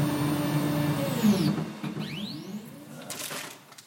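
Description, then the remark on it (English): A 3D printer hums steadily in the Vortic Watch Company workshop on an old farm in Fort Collins, Colorado, its motors whining in rising and falling sweeps as the print head moves back and forth, with a continuous low mechanical drone underneath. “Inside, ball peen hammers and leather punchers hang next to a 3D printer and a laser engraver.”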